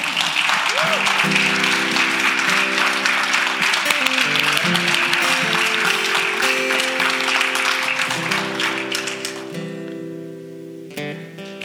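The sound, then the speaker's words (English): Sustained church audience applause, given by show of hands to answer how many realize they are not perfect, a dense crackling wash of many hands clapping, with steady organ-like music chords underneath; the clapping thins out and fades over the last couple of seconds. “By show of applause, how many realize you are not perfect?”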